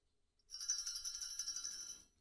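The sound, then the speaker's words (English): Bright, shimmering bells ring continuously for about a second and a half, a steady jangling peal heard on its own with no voices, then cutting off abruptly. “Gotta love those bells.”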